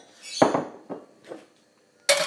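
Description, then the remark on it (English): A ceramic bowl clinks and knocks several times as it's picked up and set down in a kitchen, a series of sharp, bright impacts with short ringing tails, ending in a louder scrape. “Oh a bowl that I washed but didn't really wash properly.”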